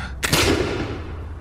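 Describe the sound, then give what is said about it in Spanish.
A single loud gunshot cracks out suddenly, then trails off in a long, echoing decay over a low background rumble. No one speaks. “Solo recuerdo aquellas enormes garras abrazando la rama y el sonido del disparo, luego otro, y yo ya estaba entonces abriendo la camioneta.”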